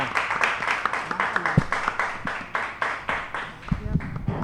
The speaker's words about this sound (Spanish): Un aplauso para ¡Venga!